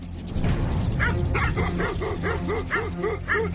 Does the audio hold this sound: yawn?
no